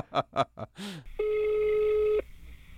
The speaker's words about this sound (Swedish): Så jag, jag, jag tänkte helt enkelt, vi ska ringa upp Mariestads kommunalråd för att, för att ja, men surra lite med honom helt enkelt.